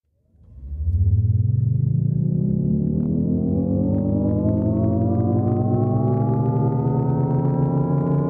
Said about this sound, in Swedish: Jaguars elektriska I-Pace låter så här när den först accelererar och sen saktar ner.